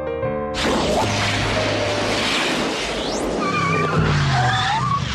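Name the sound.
car tires skidding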